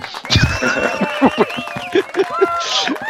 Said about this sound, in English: Oh, Yay! Now you can put the, the, the jingle of, of applause.